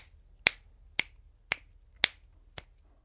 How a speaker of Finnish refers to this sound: Mutta tota, joka tapauksessa se, mikä, mikä tota, tulee ihan täysin kehityksen ja opetuksen kautta, on se, että sä pystyt samaan aikaan vaikka soittaa neljäsosia, eli naputtaa sanotaan vaikka sormilla näin.